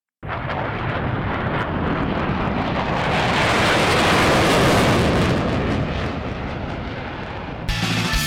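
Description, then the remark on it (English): A jet airplane roars loudly and steadily, swelling to a peak midway as if taking off, then easing slightly before cutting off abruptly, heading to Six Nations, Ontario. No voices. “So load up the jet.”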